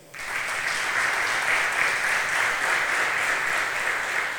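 A crowd bursts into steady applause for the Lord, a dense wash of many hands clapping that starts abruptly and holds at an even, fairly loud level for several seconds without any talking.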